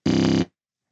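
A phone buzzes with an incoming call: one loud, harsh, rasping burst lasting under half a second, with steady pitch and no voices, followed by silence.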